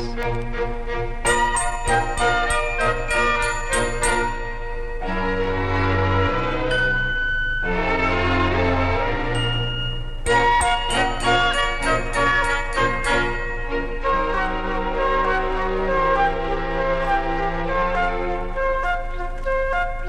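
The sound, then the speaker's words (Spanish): Bright, tinkling bell-like tones ripple quickly over a sustained musical backdrop, steady and fairly loud throughout, with clusters of rapid chiming notes recurring across the passage. “Y si eres curiosa, verás cupidos color de rosa que al agitar sus blancas alitas dejan sonido de campanitas.”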